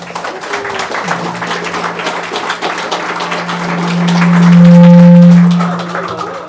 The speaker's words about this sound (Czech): Kluci, díky moc, takže myslím, že si kluci zaslouží potlesk, ne?